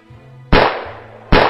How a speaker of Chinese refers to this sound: 芦花村里的人听到河沿上响了几枪